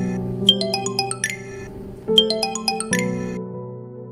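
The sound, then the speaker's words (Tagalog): A phone alarm rings in a bright, repeating melodic chime, playing the same short tune twice in a row, fairly loud with no talking. “Mas lalo akong nanlumo nang makita kung ano ang sanhi ng pagtunog ng aking telepono. Isa itong alarm.”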